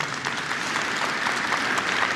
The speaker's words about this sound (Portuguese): Uma salva de palmas para elas.